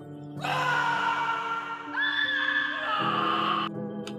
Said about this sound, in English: As she started feeling more awake, she thought she heard faint screams in the distance.